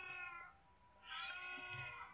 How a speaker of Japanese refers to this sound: 私の家でほんと3匹飼ってるんで、今も多分この猫の声入ってると思うんですけど